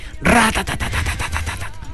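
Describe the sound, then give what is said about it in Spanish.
A voice imitates machine gun fire, sounding out the word 'metralleta' as it sounds: a rapid, rattling burst of a dozen or so clipped, percussive pulses that carries on for nearly two seconds before trailing off. “escriba la palabra metralleta”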